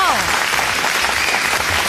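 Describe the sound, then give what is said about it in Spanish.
Steady, dense applause from a group fills the whole moment, loud, with a voice briefly audible at the start over the clapping. “Se merecen unos aplausos, ¿verdad?”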